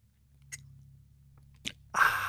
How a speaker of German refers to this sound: wir, nehmen beide nochmal ein Schlückchen. Ah. Du nimmst einen Schluck Wasser, Komm. ich einen Schluck Tee.